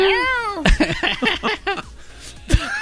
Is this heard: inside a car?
no